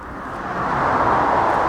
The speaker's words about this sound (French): Notre première sortie euh, dehors. Premier son qu'on écoute. Bah, c'est les voitures.